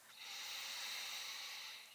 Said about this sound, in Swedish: Och den andra är en lugnande andning som du gör genom vänster näsborre. Så då täpper du helt enkelt för höger näsborre med tummen eller pekfingret.